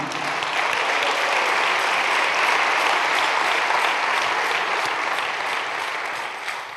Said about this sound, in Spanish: A su nombre, gloria. Denle un aplauso a Cristo, hermano.